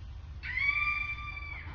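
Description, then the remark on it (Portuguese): A single high-pitched scream rings out for about a second, steady and piercing, over a constant low rumble, heard by passengers inside a train carriage. “Todos os três estavam dentro de um vagão quando eles escutaram um grito”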